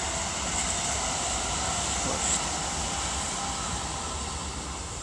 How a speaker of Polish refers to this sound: Nawet jeszcze coś tu sobie jedzie. Czy pociąg jakiś?